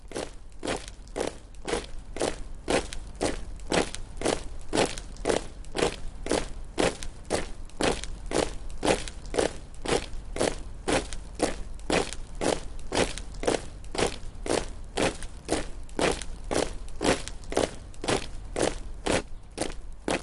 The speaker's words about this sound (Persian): پا بگیر پا میگیرم راه بیفت راه میافتم دور اتاق